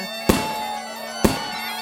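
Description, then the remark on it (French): Two sharp firework bangs burst about a second apart, each cracking loudly then fading quickly, over a steady droning musical background of bombardes with no talking, at a Breton saint's festival in the Trégor, Brittany. “Et je crois bien qu'il y a aussi des feux d'artifice.”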